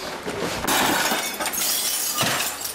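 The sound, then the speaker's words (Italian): A printer thrown off a balcony smashes on impact: a loud, sudden crash followed by a couple of seconds of rattling, shattering debris, with another sharp burst of breaking near the end. No voices. “Hai detto prova a lanciare la stampante, l'ho buttata giù dal balcone.”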